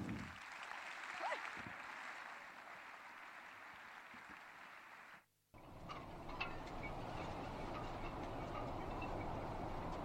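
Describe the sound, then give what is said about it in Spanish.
A crowd applauds the murga 'Los PTV dan la vuelta al mundo' in a dense, steady wash of clapping that breaks off for a brief moment midway, then resumes just as full and continues to the end. “Los PTV dan la vuelta al mundo. ¡Aplausos!”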